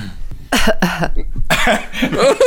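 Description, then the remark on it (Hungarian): Several harsh, loud coughs burst right up against the microphone in two close clusters, sounding thick and raspy, with no talking in between. “És most tényleg leköhögtettel a mikrofont.”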